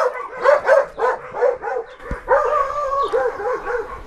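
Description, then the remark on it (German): Several dogs bark in rapid, overlapping bursts at someone passing by the property, a steady chorus of yaps and barks with a brief thump partway through and a faint higher yelp near the end. “Es kommt jemand am Grundstück vorbei.”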